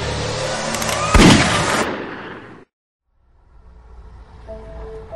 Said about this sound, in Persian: قبل از اینکه فرصت کنه واکنشی از خودش بروز بده سم ماشه را کشید و خون به شیشه پاشید